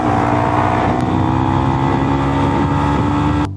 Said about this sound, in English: The driver pulls ahead and tries to swerve right into the motorcycle. Damn. But the crazy doesn't end there. The motorcyclist speeds away, but the man in the car follows.